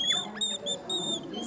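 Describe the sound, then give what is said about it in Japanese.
A person imitates a bird call with high, squeaky whistled chirps, a few short tones repeated in quick succession, fairly clear with faint noise underneath. “本当にあのやっぱり森とか山とか行きまして、まあ、鳥の声聞いたりとかあとは逆にこう鳥の声で返してみたりとか、はい、そういう作業しますと多分分かってくると思います”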